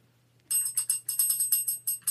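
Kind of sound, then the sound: sound effect, bell ringing sound effect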